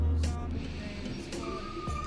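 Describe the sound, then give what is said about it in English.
A squeaky lorry rumbles past with strong low-end drone, while thin high-pitched squeals and whines cut in and out above the engine noise. “and that is the squeakiest lorry in the world.”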